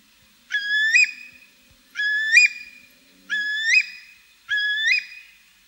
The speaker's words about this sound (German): Der Dünnschnabel-Brachvogel. Wir hören noch einmal die einzige existierende Stimmaufnahme.